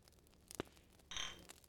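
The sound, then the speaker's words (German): A soft tap, then one bright glass clink as glasses are clinked in a toast, ringing briefly at a high pitch before fading; quiet, with no talking. “ich werde jetzt mal, wir müssen jetzt nochmal anstoßen.”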